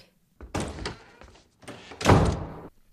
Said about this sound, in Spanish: Bueno, portazo en la, en la habitación de la niña.